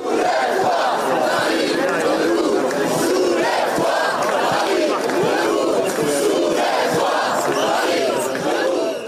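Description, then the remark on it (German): A large protest crowd in France, at union-called protests and strikes over the pension reform, chants loudly and continuously, many voices shouting together in rhythmic bursts, dense throughout with no break. “Für diesen Montag haben Gewerkschaften zu Protesten und Streiks aufgerufen. So klang das schon in den letzten Tagen.”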